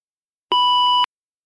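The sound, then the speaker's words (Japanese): A single steady, clear electronic beep lasting about half a second with clicks at its start and end, then silence. It sounds like an answering machine tone before a message. “留守番電話にメッセージが入っていました。”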